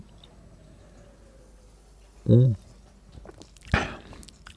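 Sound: drinking a soft drink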